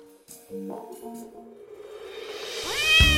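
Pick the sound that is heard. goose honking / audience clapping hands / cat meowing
cat meowing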